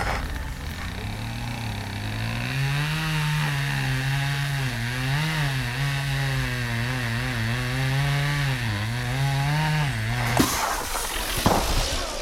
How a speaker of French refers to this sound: il y a une tronçonneuse qui était sortie dans, dans la forêt juste à côté de la ligne de keuf et on est en train de scier des arbres pour les empêcher de passer.